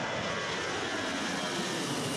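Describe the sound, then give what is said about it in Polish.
A steady, loud private jet engine roar fills the whole moment, a broad continuous rushing hiss with no voices and no change in intensity. “Takich przedmiotów, które mogą zmienić nasz status społeczny, jest bardzo dużo i wydaje mi się, iż e, nie musimy tutaj dywagować zbyt wiele nad faktem, iż prywatne odrzutowce są jednymi z takich przedmiotów.”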